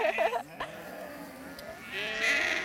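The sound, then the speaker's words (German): Several sheep bleat in wavering, overlapping calls as sheep that have climbed out of a trailer run to join a flock, with a quieter stretch of milling animals in between and more bleating rising again at the end. “Nach einem kurzen Zögern sind die Schafe aus dem Anhänger geklettert und gleich auf die Schafherde zugelaufen.”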